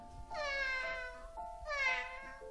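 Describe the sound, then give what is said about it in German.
Two drawn-out cat meows in quick succession, fairly loud, each rising then falling in pitch, with no other sounds around them. “Wow ein Vogel mit gebrochenem Flügel, der nur noch miauen kann.”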